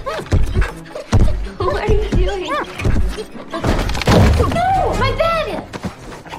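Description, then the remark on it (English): Heavy, booming footsteps of Clifford walking in the house thud at a slow, irregular pace while dishes and cabinets, physically shaken for the effect, rattle and clatter with each step, with voices or vocal sounds running throughout. “So, taking that inspiration when we were doing scenes where Clifford wakes up and is in the house, we actually shook, you know, dishes and cabinets when he's walking.”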